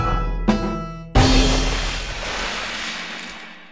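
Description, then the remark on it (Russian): A light plop, then a loud splash as something jumps into pond water, the churning wash slowly fading over the next few seconds. No one speaks. “Тим тоже добежал до пруда и тоже прыгнул в воду.”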